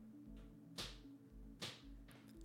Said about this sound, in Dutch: Die stapt de kattenbak af en dan doet hij altijd zijn pootjes vegen. Maar het maakt wel herrie.